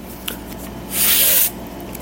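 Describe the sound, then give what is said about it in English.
A voice imitates a sheet of paper slowly tearing: one steady, breathy hiss lasting about half a second, with quiet background before and after and no talking. “I can do a sound effect of ripping through a sheet of paper, slowly tearing through a sheet of paper.”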